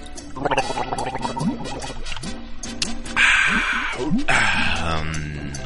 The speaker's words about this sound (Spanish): ¿Qué pedo con mi voz? A ver, unas gárgaras, cara. A ver, vamos a ver si sirven de algo.